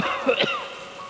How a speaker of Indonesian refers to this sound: Bukan, Mas. Suara apa? Suara saya batuk.